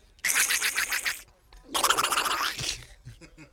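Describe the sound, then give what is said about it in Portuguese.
A person imitates the voice of Donald Duck in two raspy, sputtering bursts, each about a second long with a short pause between them, fairly loud, followed by faint quiet sounds. “Depois também há o pato Donald.”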